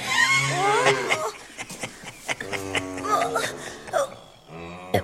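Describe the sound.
A cow moos in a stable in drawn-out, wavering calls, followed by several shorter lows in quick succession, fairly loud, with voices mixed in among the calls.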